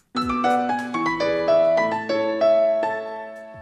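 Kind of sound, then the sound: signal or alarm, mobile phone ringtone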